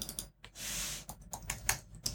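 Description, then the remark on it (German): Quick bursts of typing on a computer keyboard while looking something up, a rapid uneven patter of key clicks with a short sustained hiss in the middle, moderately loud with no voices. “Wenn man es richtig tippt, findet man es auch.”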